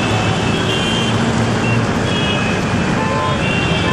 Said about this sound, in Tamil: ஃப்ரெண்டோட வீட்டுல இருந்து கிளம்பி வரும்போது ரோட்ல அவ்வளோ டிராஃபிக்